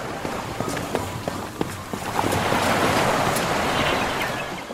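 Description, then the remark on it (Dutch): Sea water churns and washes below an offshore energy platform, heard through an opened hatch on the way from the cable deck to the boat landing, a broad steady rush that swells in the second half, with scattered clanks and footstep-like knocks early on. No one speaks. “We doen het luik open. En we hebben een prachtig zicht op de zee onderaan.”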